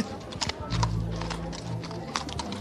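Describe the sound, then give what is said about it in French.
Horse hooves clip-clop at a trot in a quick, steady rhythm of sharp knocks, over a low rumbling background with a faint hum, at the Saint-Vincent Tournante event. “Je voudrais avoir le bruit des sabots. Est-ce qu'on peut partir au trot allez, allez, allez, allez, tout bijou, c'est parti.”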